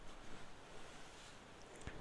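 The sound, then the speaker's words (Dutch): Ocean waves wash against rocks in a soft, steady surf, a continuous hiss of water with no distinct individual crashes and no one speaking. “Hoor de golven tegen de rotsen slaan en hoor hoe verderop een vissersbootje rondvaart.”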